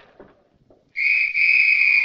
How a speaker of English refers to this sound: What's he doing blowing that whistle? We'll wait and see.